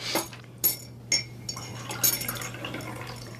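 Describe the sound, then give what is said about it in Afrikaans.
A few light clinks of a cup or pot, then a steady stream of warm water poured into a mug for coffee, fairly quiet, over a low background hum. “Uh, wil je koffie? Geloof my, mijn koffie is lekkerder as joune. Nou kom laat we proe. Die water is nog lekker warm.”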